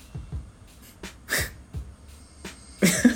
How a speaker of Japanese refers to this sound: これねいびき取れんねんやばいびき取れんねんこれちゃんと録音してんねんな